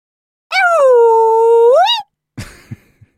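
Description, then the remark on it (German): A human voice imitates a long, rising-and-falling Sasquatch (Bigfoot) howl lasting about a second and a half, loud, followed by a few soft thuds and rustling noises. “Das war der Ruf des Sasquatch.”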